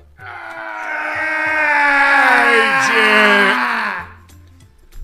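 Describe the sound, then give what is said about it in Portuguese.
A voice imitates a loud, drawn-out scream, one continuous wailing cry held for about four seconds with a brief pitch dip midway, then cutting off into quiet. “Aí o primeiro cara entrou e alguns minutos depois se ouviu um grito alto e, e prolongado.”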